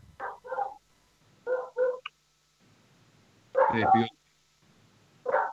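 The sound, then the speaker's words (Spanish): A small dog yaps in short, high-pitched bursts, often in quick pairs, with brief pauses between them; the barks are moderately loud against a quiet background. “Oye, y cuidado con el perrito, ¿ah?”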